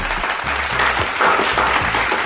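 A crowd claps steadily, a dense, loud patter of many hands with no pauses, sustained throughout the short stretch with no voices on top.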